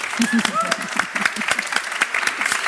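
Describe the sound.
An audience applauds steadily, a dense patter of many hands clapping at once, with a few cheerful voices calling out over the clapping.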